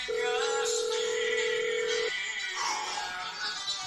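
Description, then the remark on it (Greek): A telephone rings with a single steady electronic tone lasting about two seconds, then cuts off, leaving a noisy, busy background hum. “Τι νούμερο καλεί τον... το τηλέφωνο μου.”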